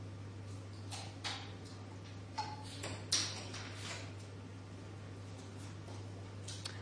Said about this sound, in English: Holy God, as we hear the sounds of bottles opening and closing, we pray for those who are thirsty and hungry, for people who, due to poverty or disaster, have nothing to drink or eat today.